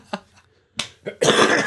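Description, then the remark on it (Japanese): A short coughing fit by a radio show speaker: a few sharp, harsh coughs with brief gaps between them, ending in a longer, rough burst of coughing. No one speaks. “ちょっと今、咳込んでしまいましたわ。”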